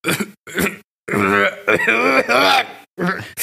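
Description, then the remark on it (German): A person who has been coughing on and off since the evening before last makes a cough: two short, rough bursts followed by longer, strained, voiced hacking sounds, fairly loud, with a final brief burst. “Ähm, und äh, dann irgendwie äh, vorgestern Abend fange ich voll an zu husten und seitdem habe ich immer mal wieder so”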